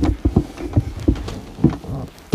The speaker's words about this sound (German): So, so ist deutlich besser. Ne, der Tisch knarzt auch megamäßig hier.